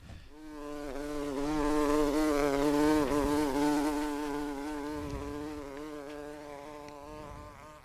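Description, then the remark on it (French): Bees buzz in a steady, droning hum that swells slightly louder midway, then eases off. It sounds continuous for the whole stretch, with no voices. “évoque l'inquiétante situation des abeilles. Attention, ça va piquer.”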